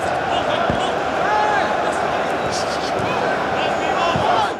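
Artificial football stadium crowd noise added by TV producers to broadcasts of matches in empty stadiums during the coronavirus epidemic, as in England, Germany and Spain: a steady, dense roar of many voices with rising murmurs and occasional shouts, continuous and fairly loud throughout, with no individual speech standing out.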